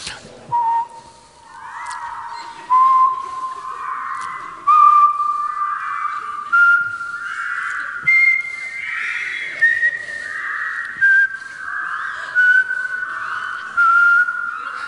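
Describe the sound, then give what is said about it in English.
An audience rehearsing whistles together in unison, matching the speaker's tone: a thick, slightly wavering chorus of sustained tones that steps gradually upward in pitch and then eases back down, filling the whole stretch without any talking. “Um, you whistle the same tone as me.”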